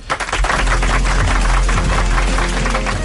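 A person claps hands forcefully, loud sharp claps in a fast steady series lasting a few seconds, with a constant low rumble underneath and no talking.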